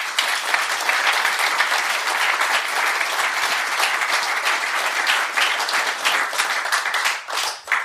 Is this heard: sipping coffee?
no